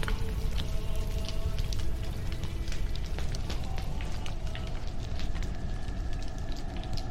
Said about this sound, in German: Mit dem Knacken und Rauschen des, der abbrennenden Hütte im Rücken und einem Feuer, das trotz seiner Größe nicht die Kälte des Winterwaldes zu durchdringen vermochte